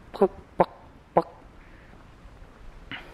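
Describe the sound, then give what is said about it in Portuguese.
A person's voice imitates a poca bird's call with three short, sharp, tonal yelps in an uneven rhythm, fairly loud, followed by quiet background and a faint breathy sound. “E agora eu vi que era o poca.”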